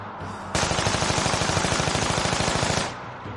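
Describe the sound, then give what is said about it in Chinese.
A sustained burst of rapid automatic gunfire from a Gatling gun mounted on an American aircraft roars for about two seconds as a loud, dense, evenly paced stream of shots, then cuts off abruptly. “不可一世的美国佬为了征服它，直接将加特林搬上了飞机。”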